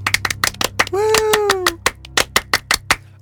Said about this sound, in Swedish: En stor fransk applåd för Daniel Paris! Un, deux, trois!